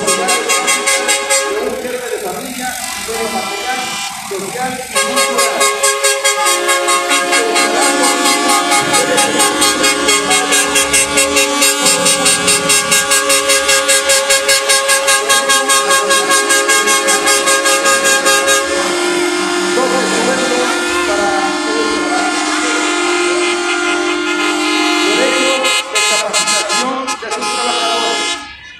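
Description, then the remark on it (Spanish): Several trailer truck horns honk loudly and almost without pause, overlapping tones blaring for nearly half a minute as a parade of more than ten balloon-decorated trailers rolls by near a statue of Miguel Hidalgo. “Igual trailers con el mismo sonido y hasta con claxon y globos.”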